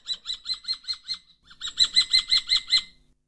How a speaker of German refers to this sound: Und es ist eigentlich äh, ganz äh, so, so von, wenn man den Ruf vom, vom Turmfalken hört, ist für mich ein, den spiele ich ein.